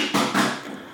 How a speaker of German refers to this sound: so, das war meine Katze, wenn man das gehört hat, die randaliert hier gerade ordentlich. Ähm, aber ich glaube, es ist noch alles heil.